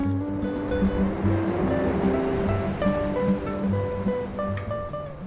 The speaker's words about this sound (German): lass uns doch mal denken, lass uns doch mal ans Meer denken, an die Wellen, wenn wir zusammen essen gehen, da unten auf dem großen Platz.